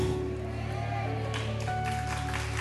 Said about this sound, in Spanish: Dale el aplauso al Señor.